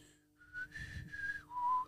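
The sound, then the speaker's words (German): A person whistles a short melodic phrase from a film soundtrack, a few sustained pitched notes sliding between tones, clear with no talking over it. “Ah, Kannst du nicht pfeifen?”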